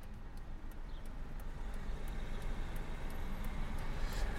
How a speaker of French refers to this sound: Donc on est de retour dans la voiture, cette fois-ci pour aller où ça va On va à l'Institut des sciences de la vigne et du vin à Villeneuve-d'Ornon, donc euh, environ 30 minutes euh, de Bordeaux.